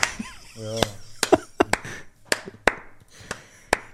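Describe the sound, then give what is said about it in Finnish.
Around eight sharp, separate claps ring out at an uneven pace, like a brief smattering of applause, with a short voiced sound near the start. “Miksi niin, et sä kiitä, kun ne taputtaa?”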